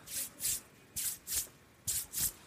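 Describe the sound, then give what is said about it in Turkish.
Six soft, breathy swishing scrapes in an even shuffling rhythm, with a brief pause midway, a person vocally imitating someone arriving and dragging their feet across the floor. Fairly quiet, with no talking. “ayaklarını sürte sürte geliyorsun.”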